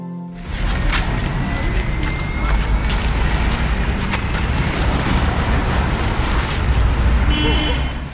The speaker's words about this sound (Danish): Fra de vilde klinter på Vossenæs pynt til asfaltjunglen i det centrale Aarhus. Vi har skiftet lyden af bølgebrus ud med en hissig summe af mange biler, motorcykler, knallerter, udrykningskøretøjer og mennesker på forbifarten.